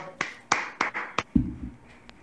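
Brief, sparse applause: four sharp, close claps spaced about a quarter second apart, followed by a duller low thump that fades out. No voices.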